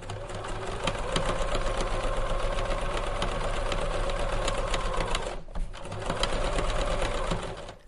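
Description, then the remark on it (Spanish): A sewing machine runs steadily, its rapid mechanical stitching rattle continuous for several seconds, pausing briefly before resuming at the same busy pace. “Unos colores cuyo tratamiento se los da una persona al frente de una máquina de coser.”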